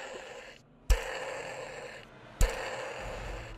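A series one Tyrannosaurus Rex toy's battery-powered stomping feature running, with a steady motor whir broken by two sharp thuds about a second and a half apart, fairly loud, with no talking.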